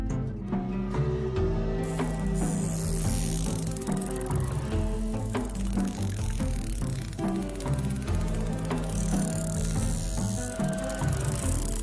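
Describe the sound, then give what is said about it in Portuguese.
A dense run of rapid echolocation clicks from a toothed whale, made by pressing air stored in special structures and directed by the melon, crackling and buzzing steadily for several seconds over a sustained tonal hum, with no voices. “Nesse momento, eu sempre guardo um pouquinho de ar em estruturas especiais e depois prenso esse ar para produzir diversos tipos de som, como esses.”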